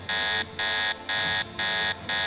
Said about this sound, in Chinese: 他试图搜寻自己为何会出现在这里的记忆资料，脑中却发出提示声音：“ 警告！警告！记忆资料已损毁，你必须连上网络更新重整资料才能修复。”